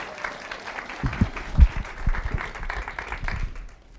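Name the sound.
round of applause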